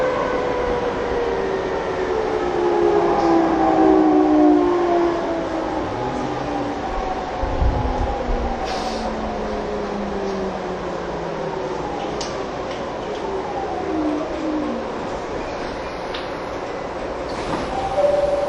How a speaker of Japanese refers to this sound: 1番線から電車が発車します。ドアが閉まります。